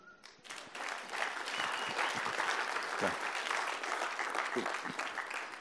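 Sustained audience applause fills the room, a dense steady clatter of many hands clapping that starts quickly and continues at an even, fairly loud level throughout.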